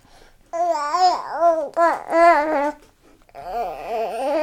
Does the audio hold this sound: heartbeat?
no